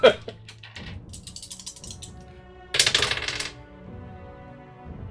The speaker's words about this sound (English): Do I risk it with the Roll20 or do I roll two real dice? I think I'm gonna try rolling two real dice. I'm gonna pick two other real dice.